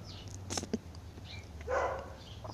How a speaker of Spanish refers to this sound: Y me puse a grabar esto. Mientras hay un perro atrás gritando, gritando, digo ladrando.